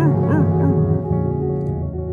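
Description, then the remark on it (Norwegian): A dog in the roadway gives a few quick, high barks in the first moments, then falls quiet, all over a steady, loud engine-like drone that continues throughout. “Nei, hund i veibanen!”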